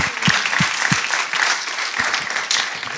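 An audience applauds steadily, many hands clapping in a dense, continuous patter with a few louder individual claps standing out, loud throughout the whole stretch.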